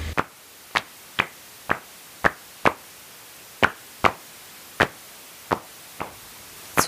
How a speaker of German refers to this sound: Spezialrufe der Mückenfledermaus. Klingen besonders nett, sagt Ulrich Hüttmeier, wenn sie zehnmal so langsam abgespielt werden.